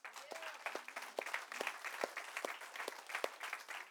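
An audience breaks into applause for Jesus, a dense, steady patter of many hands clapping at once, with a few sharper individual claps standing out and faint voices mixed in.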